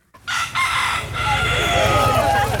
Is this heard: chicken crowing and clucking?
yes